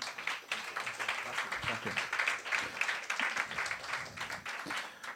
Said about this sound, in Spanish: Fuerte aplauso, compañero.